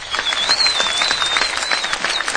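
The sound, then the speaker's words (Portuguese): A steady round of applause from many hands for the tenth-place finisher in a ranking, a dense, continuous patter of claps with a thin high whistle-like tone riding over it throughout. “Salva de palmas.”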